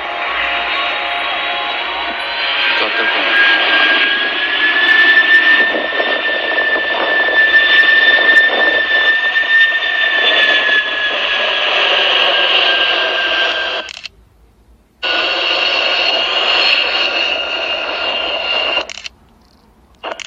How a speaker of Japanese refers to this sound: えっ、と、C2 ですね、C2 の方が、え飛んできてました。9時45分から10時ということでね、えっ、と、1回フライパスして U ターンして、えカーゴベイを開けてもう1回フライパスしたとこですよね。